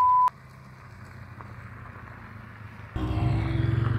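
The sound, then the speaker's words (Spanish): A tractor's engine rumbles low and steady, then grows noticeably louder and rougher partway through as it passes. A short electronic beep sounds at the very start; no one speaks. “Vamos a parar un poquito para que pase el tractor, porque por supuesto tiene que pasar un tractor a media grabación.”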